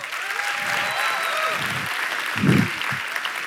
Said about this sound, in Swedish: Jag kan ge en applåd.